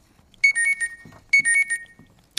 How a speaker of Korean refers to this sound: 알람소리죠? 네, 알람소리.